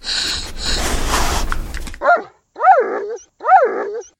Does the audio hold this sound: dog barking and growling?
yes